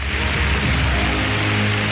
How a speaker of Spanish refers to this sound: merecido sin duda, y es un, este que pueden escuchar el enorme aplauso que, y ovación que le está dedicando el Teatro de la Maestranza.